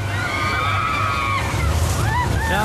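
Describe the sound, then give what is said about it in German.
A log flume boat on an amusement park wild-water ride (Wildwasserbahn) splashes through water with a steady rushing, sloshing roar and deep rumble, while high wavering shrieks and voices rise over the noise. “Äh, bei der Wildwasserbahn, äh, Achtung, da kommt wieder eine”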